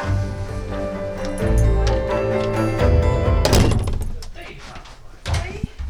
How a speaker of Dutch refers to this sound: Ik doe wel eerst de deur dicht.